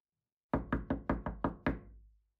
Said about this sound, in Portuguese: Desta vez, o mensageiro levou uma chave, e depois que suas batidas não obtiveram resposta, ele abriu a porta